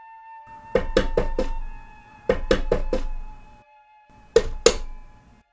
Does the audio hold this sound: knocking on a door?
yes